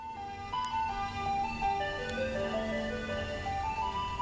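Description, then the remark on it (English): A tinny ice cream truck jingle plays a simple looping melody of bright electronic tones, steady and moderately loud, with faint low road rumble underneath and no talking. “It sounded like the same music that you hear being played when the ice cream truck drove down the street during the summer.”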